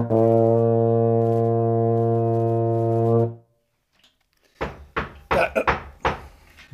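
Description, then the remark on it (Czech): A deep, loud ship's horn blares steadily for about three seconds to announce the start, then cuts off; after a short silence come several sharp knocks in an uneven cluster. “E, přátelé se určitě blíží a já mám ve zvyku si to pěkně odtroubit, aby jsme věděli, že začínáme.”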